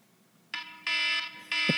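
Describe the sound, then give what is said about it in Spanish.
A loud electronic alarm blares in three harsh, buzzing bursts, each with a strong rich tone and abrupt starts, separated by brief gaps. “pero la alarma ya la pusiste, ponme la canción.”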